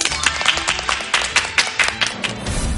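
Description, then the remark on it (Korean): A studio audience applauds steadily for a few seconds to welcome the main lecture: a dense wash of many hands clapping, with sharper individual claps popping out now and then. No one speaks over it. “자, 그럼 박수로 본 강연 부탁드릴게요.”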